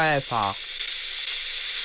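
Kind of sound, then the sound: signal or alarm, FM radio static hiss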